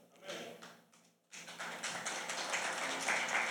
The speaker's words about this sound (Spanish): Están aplaudiendo los que vinieron.